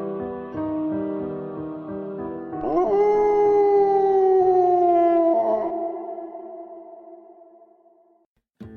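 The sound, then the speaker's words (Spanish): A dog, Capitán, lets out a long, mournful howl that swoops upward and then slowly sinks and fades over several seconds, loud, with shorter wavering tones before it and no talking, on a quiet night near Cerro Gordo, San Luis Amatlán, Miahuatlán district, Oaxaca. “En las noches tranquilas, pon mucha atención, pues en los alrededores del Cerro Gordo, muy cerca de San Luis Amatlán, en el distrito de Miahuatlán, Oaxaca, todavía se pueden escuchar los aullidos del capitán, esperando por su amo.”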